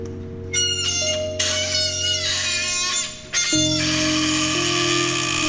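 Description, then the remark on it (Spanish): A tin can of tomatoes being opened with a motorized opener: a steady mechanical whir with a metallic grinding edge, running continuously and fairly loud, shifting pitch a couple of times as it works around the lid. “Estoy abriendo una lata de tomates.”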